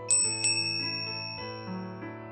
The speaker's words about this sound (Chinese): 只有上早课的高中生骑着自行车路过楼下，偶尔有几声清脆的车铃。